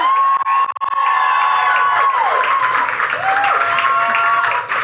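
A crowd bursts into sustained applause with loud cheering and high whoops layered over steady clapping, filling the whole clip at full volume without letting up.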